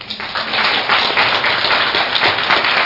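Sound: applause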